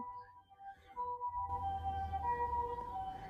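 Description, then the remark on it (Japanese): An ambulance siren wails steadily as it passes, its sustained tones holding throughout over low traffic rumble, growing fuller and louder partway through. “救急車が通るね。”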